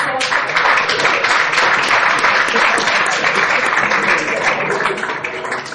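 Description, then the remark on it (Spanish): Sustained applause from a crowd welcoming new ambassadors José Mourinho and Neymar, a dense, steady wash of many hands clapping that stays loud throughout and eases slightly toward the end, with faint voices mixed in. “Entre aplausos se recibía a estos dos nuevos embajadores como José Mourinho, que se une al equipo de comentaristas, también Neymar”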